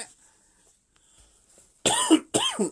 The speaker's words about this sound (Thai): โอ้ยไอได้ยินชัดไหม